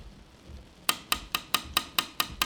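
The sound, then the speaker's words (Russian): Eight quick, sharp taps of a flag handle against the window glass of a Lada 'Nine' car stuck on a railway crossing in rain, rapped by a person in an orange cape in a steady insistent rhythm, crisp after a brief stretch of quiet background. “Оранжевая накидка настойчиво стучала рукояткой флажка по стеклу.”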